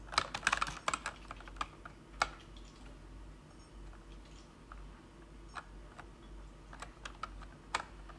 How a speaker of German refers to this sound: bin gerade auf der Tastatur.